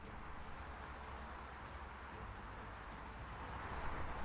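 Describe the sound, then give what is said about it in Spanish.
A steady, dense wash of road traffic noise, cars, vans and trucks passing constantly on Calle Camilo Villavaso, a street carrying more than 80,000 cars a day, heard from a fifth-floor window, with a deep low rumble, swelling slightly louder toward the end. No one speaks. “Coches, eh, furgonetas, camiones a diario pasando constantemente”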